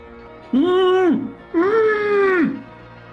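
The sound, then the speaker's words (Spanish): Two long, drawn-out moans from a single voice, each rising and holding before sliding down, with a short pause between them; the voice sounds muffled, as if something were covering it, and comes from behind. “También escuchas poco a poco una voz, parece como un gemido, como si algo lo tapara.”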